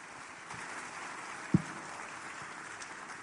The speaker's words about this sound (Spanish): ¿Cuánto lo creen? ¿Cuánto lo creen? Dale un fuerte aplauso al Señor en esta mañana.